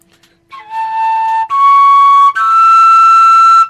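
A hollow pipe whistle blown three times in a row with breaths of different strength, each louder and higher than the last, steady sustained tones with a slight breathy edge, clear with no talking.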